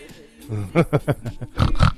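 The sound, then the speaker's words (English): A person voices a rapid series of pig-like grunts and snorts as a chant for the Bush Pigs, about five short pulsing bursts followed by louder, rougher oinks, fairly loud with no other sounds. “Get up, the, the bushies. Bush pigs.”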